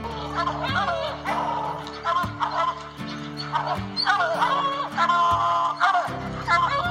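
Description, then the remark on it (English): A dog, urged to get a bird, barks repeatedly in short, loud bursts, layered over a steady musical backing with sustained low tones. “Good dog, get that bird!”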